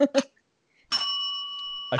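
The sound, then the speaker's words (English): A bell used to signal a timed game round rings out with a single clear strike, sustaining a bright, steady tone for about a second. Brief bits of speech come just before and right after it. “I have a bell.”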